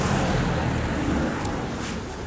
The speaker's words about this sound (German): Wir entschuldigen uns hiermit immer und für alle Zeiten dafür, dass Autos auf dieser Welt fahren. Wir können es leider nicht, nicht ändern und wir wissen, dass das total nervig ist.